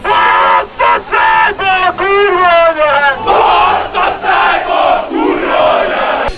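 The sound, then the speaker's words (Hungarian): A large crowd of Ferencváros (Fradi) football fans chants together in a stadium, a loud, steady roar of many voices with rhythmic, rising and falling sung phrases that pulse in short bursts. “Na ez éppen a Fradi kórus hangja volt valamikor, és pont ezt nem szeretné most a klub.”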